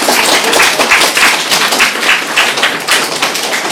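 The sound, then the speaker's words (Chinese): An audience applauds with steady, dense clapping that fills the whole stretch at a fairly loud, even level, many hands overlapping into a crackling wash with no voices heard. “是请坐，来，掌声，掌声，不错。”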